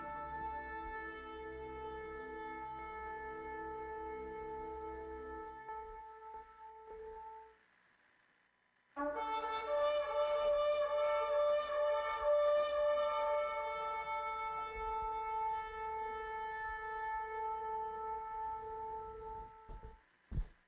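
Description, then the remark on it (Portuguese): Loud, sustained trumpet blasts ring out alone: a long brassy call, a brief drop to near silence, then a second even brighter, fuller blast that holds to the end. “Achou a trombeta? E quer pôr?”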